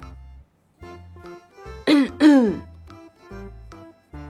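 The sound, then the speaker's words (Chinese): Two quick, raspy coughs in close succession, brief and fairly loud, set between stretches of low, steady, humming tones: a few light coughs from Chief Niu, a bull character, at a meeting. “见讨论出现了火药味儿，牛社长轻轻的咳了几声。”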